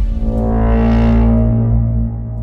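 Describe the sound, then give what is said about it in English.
A massive, distorted brass-like blast in a movie trailer sustains for about two seconds, a deep foghorn-style braam with harsh buzzing overtones that swell and then fade slightly. “And there's drum beats and that loud, yeah, that loud like foghorn. That's not quite a foghorn thing.”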